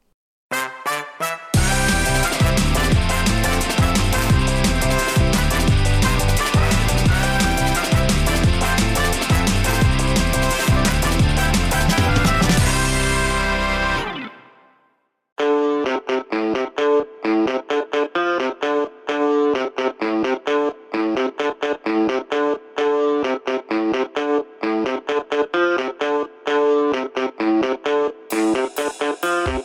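A loud pop-rock song with dense, distorted guitars and steady drums fades out around the midpoint, then a brighter rhythmic section with sharp repeated chords and beats continues to the end.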